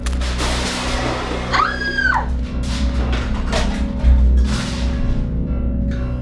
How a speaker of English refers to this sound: Without even bothering to look, the monstrous Samantha hits the annoyingly helpful baker hard, launching him across the shop and slamming him into racks of baked goods.